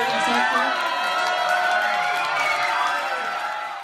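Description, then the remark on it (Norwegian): An audience cheers and shouts together as actor Seth Rogen meets them at the premiere of The Interview on Christmas Day, a loud, steady wash of many voices with high excited yells on top, holding for a few seconds before easing slightly. “Slik låt det da skuespiller Seth Rogan møtte publikum da The Interview omsider hadde sin premiere første juledag.”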